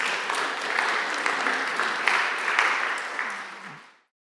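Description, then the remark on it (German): An audience applauds a guest who came especially for the event, clapping steadily for about four seconds, a dense wash of many hands with scattered sharper claps, then the applause fades out quickly into silence. “Ein Applaus übrigens, finde ich, dass er extra gekommen ist.”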